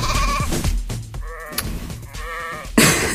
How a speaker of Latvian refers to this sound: man, man tās aitas tur blēja ausī